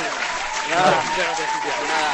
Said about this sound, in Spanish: por haberte asomado a, la ventana de, de, Level Up y nada, este aplauso para ti.